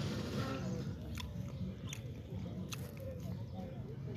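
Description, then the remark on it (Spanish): Wet chewing and biting of a burger with soft crunchy transients repeating every second or so, steady and intimate, with no talking over it. “Yo me lo estoy tragando nada más porque pues, ya la compramos ni pedo.”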